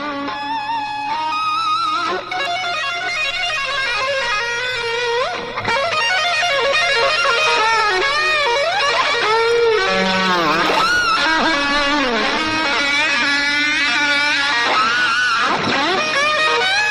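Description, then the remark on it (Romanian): A loud, distorted electric guitar solo with rapid runs, sweeping pitch bends and squealing dives, steady over a low sustained drone, with no voices. “Uh, uh, solo-ul este cam așa și este excepțional.”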